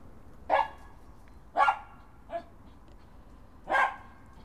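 A neighbour's dog barks outside, four separate barks spaced irregularly over a few seconds, with a faint background hum and no one talking.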